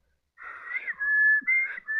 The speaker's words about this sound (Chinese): 灵神抬头看了看天，他悠然自得的轻松的吹了口哨